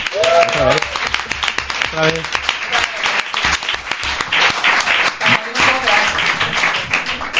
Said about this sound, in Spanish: Recibimos con este fuerte aplauso a Goyo Jiménez.